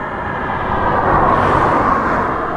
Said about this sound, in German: Und was ich so spannend finde ist, jetzt warten wir mal kurz, bis das Auto hier vorbeigefahren ist.